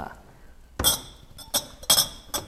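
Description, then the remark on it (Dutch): Four sharp glassy clinks ring out at uneven intervals, each with a bright, brief ringing tone, as a glass is put back in a cupboard, knocking against a shelf or other glass, over a quiet background. “Alleen in cultuur van ik doe even een glas terug”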